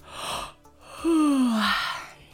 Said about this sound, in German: Oh, Verzeihung, bin doch etwas müde heute. Aber warum gähnen wir eigentlich? Und ist Gähnen eigentlich ansteckend?